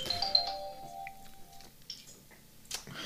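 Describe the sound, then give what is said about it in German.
A doorbell chimes near the start, in the morning, its tones ringing out and fading over about a second and a half, followed by faint scattered clicks and room noise. “ja, am, am, Morgen muss hier immer alles klingeln.”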